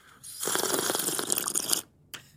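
A long, loud, noisy slurp of American coffee, drunk while driving in traffic, lasting over a second, with a crackly, bubbling texture, followed by a short second slurp after a brief pause.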